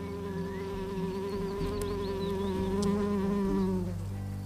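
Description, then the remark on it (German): Bees buzz steadily in flight, a continuous droning hum with a slightly wavering pitch that shifts lower and thins out near the end, with no voices. “Die Bienenkönigin flog voran und sprach die Bitte aus.”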